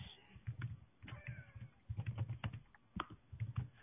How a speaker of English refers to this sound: Someone's gonna be faster. I can hear typing.